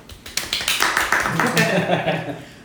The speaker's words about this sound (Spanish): Un aplauso.